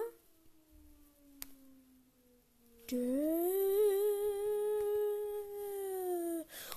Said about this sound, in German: Ich glaube, man hört es jetzt nicht so gut, aber bei uns läuft hier gerade eine Sirene.